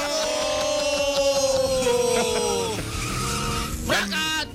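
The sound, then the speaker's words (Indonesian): The engine of a small Mio automatic motor scooter whines loudly as it drives off, its pitch sliding steadily downward, followed by a brief sharp screech near the end. “Pasti kita motor metik, Pak.”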